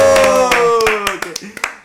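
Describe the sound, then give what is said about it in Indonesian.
Scattered hand claps, about nine sharp slaps at an uneven pace, ring out over a sustained, slowly falling vocal tone, with the clapping growing sparser and more distinct toward the end. “Tepuk tangan dulu, tepuk tangan dulu.”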